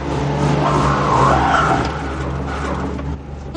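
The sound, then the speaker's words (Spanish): A car stuck at night in a large pothole in the ground as a young woman tries to drive it out: the engine strains and revs steadily while the tires spin and whine without grip, a continuous churning drone that swells midway and then eases off slightly toward the end. “La joven trata de sacar el coche, pero las ruedas giran en vano.”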